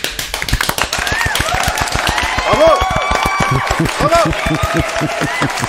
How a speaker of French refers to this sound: On, s'auto applaudit.